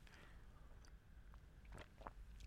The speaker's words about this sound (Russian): Извините, я сейчас делаю глоток чая, потом объясню, что это такое для тех, кто не очень включен в научный сленг.